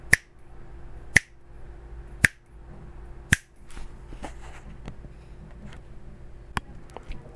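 Four crisp finger snaps land at a steady, roughly one-second pace, followed by a quieter stretch and two fainter snaps near the end, all over a low, steady background hum, made while demonstrating an audio limiter.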